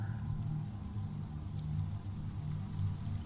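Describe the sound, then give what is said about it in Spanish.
Steady rain falls at night during a storm in a continuous, even hiss with a low rumbling undertone. No voices, just the unbroken wash of rainfall at a moderate level. “Esa noche llovía.”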